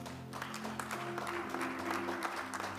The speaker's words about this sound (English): Tonight, celebrate God with a clap offering.